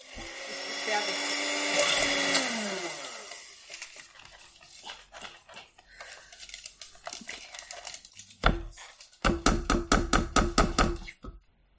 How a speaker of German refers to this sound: wenn wir dann fertig sind mit dieser Pürierstab-Aktion jetzt so. Das ist jetzt meiner Meinung nach noch ein bisschen äh, genug von dem Duftöl. Und jetzt kommt der Moment, wo wir das Aufnahmegerät ausmachen, weil es so laut wird.